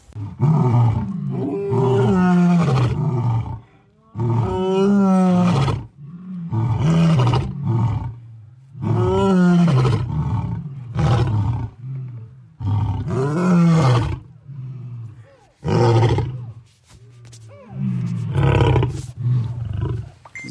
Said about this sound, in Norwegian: instinktet til løvene som bruker det som varsling til andre løveflokker at dette er territoriet mitt